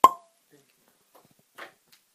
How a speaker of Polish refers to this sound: To jest odgłos otwierania butelki. Kręcamy się w korek. jednym zgrabnym ruchem. Uwaga.